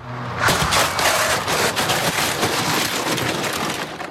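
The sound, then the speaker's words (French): A loud, sharp crash of a car hitting a scooter at 50 km/h in an accident staged by a specialist company, a dummy thrown to the ground, followed by several seconds of harsh, noisy scraping and clattering debris that slowly tapers off. “Il y a d'abord le choc impressionnant.”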